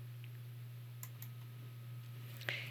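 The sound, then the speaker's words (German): A few soft computer mouse clicks while opening a web page, irregularly spaced, with two close together and another a moment later, set against a steady low electrical hum. “leider habe ich jetzt die Seite nicht auf und muss einmal kurz klicken.”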